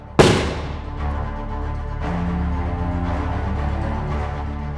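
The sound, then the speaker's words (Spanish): A single sharp pistol gunshot cracks out loudly in a hall, then a long booming reverberation, amplified by the semicircular dome, lingers and rolls on for several seconds. “El tiro resuena en la sala como un petardo bien cargado, pero la cúpula semicircular se encarga de amplificar el sonido como si fuera un cañonazo.”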